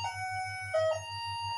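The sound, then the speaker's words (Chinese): A doorbell in a home gives an odd electronic ring while a conversation is being recorded: a steady high-pitched tone that swells louder for a moment midway, over a low, regularly pulsing hum. No one speaks. “刚才我家里出现了一些门铃的异响，被录进去了，这个没事吧？”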